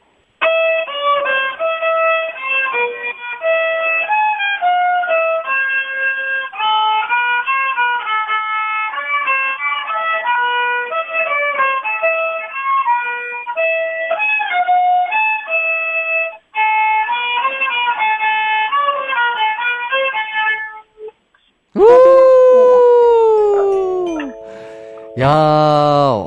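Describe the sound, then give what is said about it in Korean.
A young girl plays a violin melody of steady, sustained notes for about twenty seconds, followed by a few brief ringing tones that slide in pitch. No one speaks. “아, 그러면은 삼촌한테 바이올린 연주 조금 들려줄래요?”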